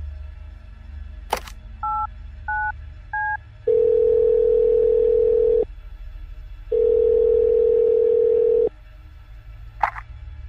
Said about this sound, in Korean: 설마 싶었던 난 행정반에 전화를 걸어 당직병에게 물었다.